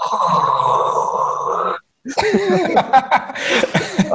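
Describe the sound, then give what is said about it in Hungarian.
A person imitates a grey seal with a long, steady, moaning wail of almost two seconds, loud. After a brief silence, laughter and lively talk follow. “Figyelj, ha karriert szeretnél váltani, mert ne adj Isten ez az állatorvos, és nem jön be, akkor szerintem fókaimitátornak elmehetsz.”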